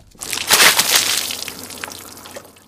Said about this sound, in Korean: 이게 무슨 소리일까요? 물 깨얹는 소리랍니다.